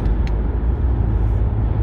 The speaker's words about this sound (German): Ähm, ja, falls ihr ein bisschen Hintergrundgeräusche habt, wie gesagt, ich sitze gerade im Auto, ich bin auf dem Weg. 110 Kilometer liegen vor mir.